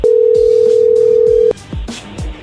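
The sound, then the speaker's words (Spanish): An incoming phone call tone: one steady, fairly loud mid-pitched electronic tone holds for about a second and a half, then cuts off, leaving a few soft low thumps and clicks. “ahí entró la llamada, contéstale tú.”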